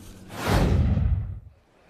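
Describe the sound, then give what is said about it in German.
A single broad rush of sea water swells up, holds briefly, then recedes and fades, a wave surging onto a beach by a large lagoon, with no voices over it. “So, ihr hört jetzt, glaube ich, schon das Meer rauschen. Wir sind jetzt nämlich zum Strand gelaufen.”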